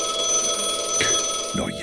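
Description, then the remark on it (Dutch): A telephone calling Sinterklaas early in the morning rings with a steady, high-pitched electronic trill that holds throughout, joined by a couple of short rustling knocks toward the end. No one speaks. “zeg, telefoon. Wie belt er nou zo vroeg in de ochtend naar Sinterklaas”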